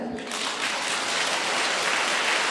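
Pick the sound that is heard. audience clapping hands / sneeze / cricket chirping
audience clapping hands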